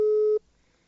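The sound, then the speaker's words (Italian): A telephone ringing tone: one steady, mid-pitched beep sounds loudly for a moment, then cuts off abruptly and leaves near silence, with no answer. “Ecco, non risponde nessuno.”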